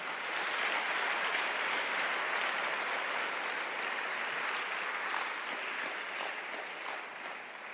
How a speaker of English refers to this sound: You can clap your hands.